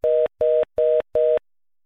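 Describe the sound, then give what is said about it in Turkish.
A telephone tone after a dropped line: four short, evenly spaced beeps at a steady mid pitch, fairly loud, then silence. No one speaks. “Evet hattımız kesildi değerli dinleyiciler.”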